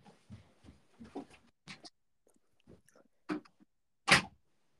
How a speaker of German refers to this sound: Das war ja wohl die Tür.